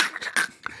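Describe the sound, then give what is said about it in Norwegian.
Someone vocally imitates an old briefcase being opened, making a quick series of breathy hisses and clicking bursts, fairly loud, with no words spoken. “Det er lyden av å åpne en stresskoffert.”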